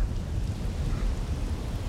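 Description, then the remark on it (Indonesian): Thunder rumbles low and steady beneath a constant wash of heavy rain, the deep roll filling the whole moment with no voices present. “Tangan tersebut bersimbah darah, sementara petir terus menggelegar.”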